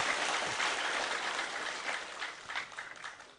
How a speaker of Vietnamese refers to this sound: À, xin quý vị dành tràng pháo tay để um, tán dương.